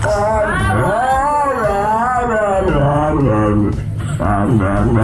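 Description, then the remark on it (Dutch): A dog makes a continuous run of warbling, whining vocal sounds that rise and fall like speech, loud, with only brief pauses over about five seconds. “Ik ben even op eh, onderzoek gegaan en ik vroeg me af, kunnen honden ook praten? Luister even mee.”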